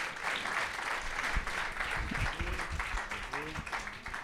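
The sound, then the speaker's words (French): Sustained audience applause welcoming a doctor to give a talk, a dense steady wash of many hands clapping at an even loudness throughout, with faint voices murmuring underneath. “venez partager avec nous sous vos applaudissements vos dernières connaissances.”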